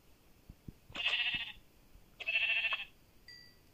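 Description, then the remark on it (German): Two bleats from a sheep in a video game, each lasting about half a second, one after the other with a short pause between, clear, with a few soft clicks and a faint tone afterward. “Nur weil dieses Schaf da sterben wollte.”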